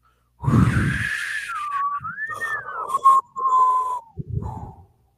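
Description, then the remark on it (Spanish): A loud rushing gust opens as wind suddenly blows in, followed by an eerie, menacing, wavering whistle that rises and falls for a few seconds before another short burst of rushing noise, like wind howling through a gap. “De pronto el viento penetra, silbando amenazador, y todos los ancianos se convierten en polvo.”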